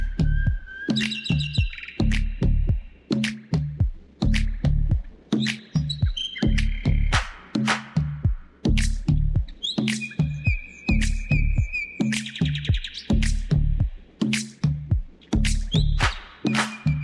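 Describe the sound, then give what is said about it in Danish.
Repeated high, bright bird chirps and twittering calls flit over a steady, pulsing low beat of Turkish music throughout, with no voices. “Læg mærke til de her fuglekvider her, der bliver den op fra morgenstålen.”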